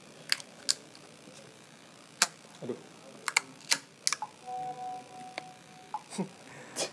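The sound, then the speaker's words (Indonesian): A long utility lighter clicks again and again: about a dozen sharp clicks at an irregular pace, with a brief exclamation from a voice and a faint tone partway through. “ini mau pakai itu korek api yang untuk apa microwave gitu yang panjang itu”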